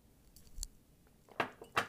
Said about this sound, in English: Okay, so I got to take a, a little uh, sip of my coffee really quick.